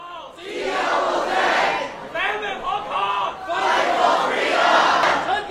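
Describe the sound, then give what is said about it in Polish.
A large protest crowd in Hong Kong chants slogans, including "Fight for Freedom" in English, in loud unison, voices swelling in rhythmic bursts with a brief dip before the next rousing shout rises again, dense. “Dwa oficjalne języki Hongkongu i anglojęzyczne hasło, które słyszeliście Fight for Freedom.”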